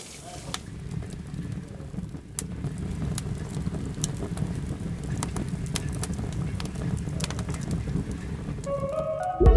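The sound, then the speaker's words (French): Water runs in a steady, continuous rush, moderately loud, with scattered sharp clicks and pops over the flow and a brief tonal sound right at the end. “C'est de l'eau qui coule, hein.”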